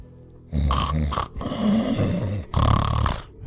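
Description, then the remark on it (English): A voice imitates a low, gravelly snoring rumble, loud, in three rough drawn-out bursts separated by brief breaks, with no words spoken. “That sounds like snoring to me, said Jeff.”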